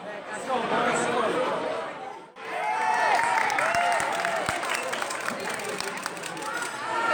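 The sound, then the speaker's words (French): A crowd of Atlético Mineiro football supporters in Belo Horizonte sings a chant together, their voices blending into a loud, continuous roar with a short drop in the middle, over claps and general stadium noise. “Et du coup, on entend quelques supporters reprendre ce chant pour euh, la 100.”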